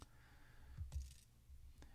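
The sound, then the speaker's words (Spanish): A couple of faint, sharp clicks of arrow buttons being pressed on a device to move through its menu to the save option, spaced about a second apart over a low, quiet background hum. “Le puedo dar flecha hacia arriba, que era mucho más rápido la de arriba, pero para que le escuchen.”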